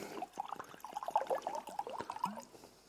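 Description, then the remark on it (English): Water being poured into a cup for a meditation demonstration, a steady gurgling, bubbly stream lasting a few seconds with small splashes, fairly quiet, no voices. “Now I have this cup of water and the job as you've seen this before, so you know what I'm up to.”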